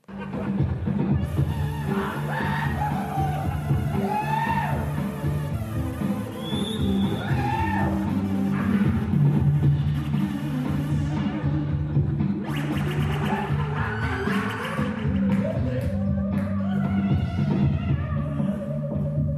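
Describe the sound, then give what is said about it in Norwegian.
Steady, loud party music with a throbbing bass line runs throughout. In the background an actor howls, wails and laughs along, responding to the music by imitating its melody, his voice sliding up and down. “begynner … å spille festmusikk, og så hører vi at …, skuespilleren, svarer på denne musikken og kommuniserer ved den ved å herme etter den”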